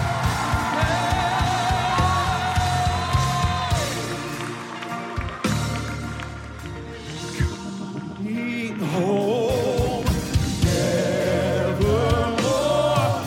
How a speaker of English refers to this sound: Come on, they're still coming. Shout and clap, encourage them. They're coming.